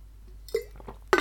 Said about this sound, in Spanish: tengo que beber un poquito de agua, un momentito. ¡Uh! qué poca agua me queda!